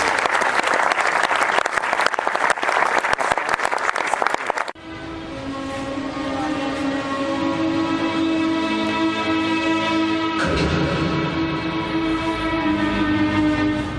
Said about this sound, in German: Dein Applaus.